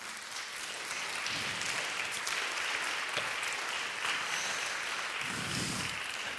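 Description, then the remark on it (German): Steady, dense audience applause for the church's prophecy team as its members stand up, a continuous crackle of many hands clapping at an even loudness with no voices standing out. “Fetten Applaus für unser Team.”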